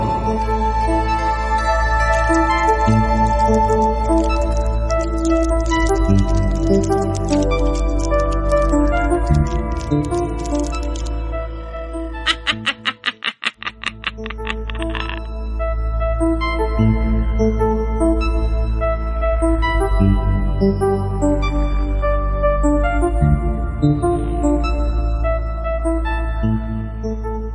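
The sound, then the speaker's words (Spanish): Loud, full instrumental theme music with rich sustained tones plays on its own, no voices, broken midway by a brief dip and a rapid percussive flutter before the tune swells back in. “Venga, Panoramis, súbeme la sintonía, que comenzamos”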